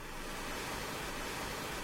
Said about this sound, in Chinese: 天空下起了滂沱大雨，相信再过不久，我们就可以出去了。